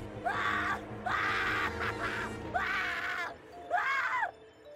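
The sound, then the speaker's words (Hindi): Two people scream in a basement behind a closed door, four long, anguished, loud bursts, each cry rising and falling in pitch with short gaps between them and no talking. “basement का दरवाजा बंद हुआ उन दोनों की चीखें और बढ़ने लगी”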